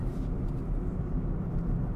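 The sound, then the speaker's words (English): Steady low rumble of road noise from inside a car driving on a one-day trip to the Grand Tetons on a lightly smoky day. A constant droning hum with no voices, even and unbroken throughout. “yeah, one day Grand Tetons require early starts and late drives home, so I'm driving in the real car.”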